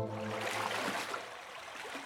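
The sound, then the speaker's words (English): River water flows in a steady, continuous rush with a gentle bubbling hiss that holds even throughout. A soft low hum sits underneath at the start, and no one speaks. “Little Bunny chased the balloon until he got to a river.”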